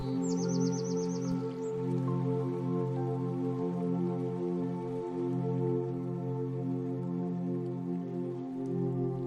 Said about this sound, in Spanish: Clarinero o Sanate Mexicano. Si hablamos de aves que tienen una inteligencia notable y la habilidad para moverse en una ciudad creada para humanos, hablamos del zanate.